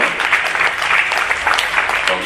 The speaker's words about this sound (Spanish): Damos un aplauso, le damos un gran aplauso.